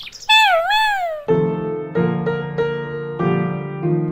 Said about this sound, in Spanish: Este gatito les dice adiós. ¡Miau, miau